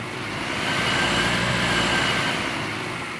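Heavy street traffic of cars and trucks rumbles in a deep steady roar that swells as a large vehicle passes and then eases slightly, with no voices over it.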